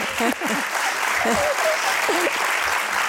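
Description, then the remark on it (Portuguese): Steady audience applause at the end of an audience question session, a dense wash of clapping that fills the whole clip at a fairly loud level, with voices talking and laughing over it. “Olha, palmas, é bom.”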